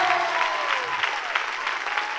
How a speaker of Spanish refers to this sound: Si le va a dar un aplauso a Dios, dáselo bien.